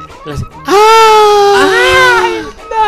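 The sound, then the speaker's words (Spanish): A voice imitates the scream of a radish being pulled from the ground: a loud, sustained, high-pitched wail lasting about two seconds, rising then falling, with brief breathy sounds before and after. “Pues, evidentemente ese, ese grito, ese dolor, le llega a la persona que está arrancando.”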